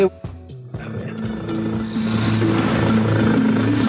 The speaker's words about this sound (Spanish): Es niña. Ah, es gatita. Es gatita. Pues con ese ronroneo, ufa. Ufa. a ver, vamos a escuchar, vamos a escuchar otra vez el ronroneo.